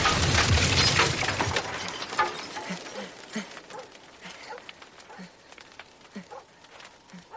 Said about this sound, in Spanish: Johnson abre la puerta, activando la bomba, la cual hace volar por los aires la cabaña en décimas de segundo.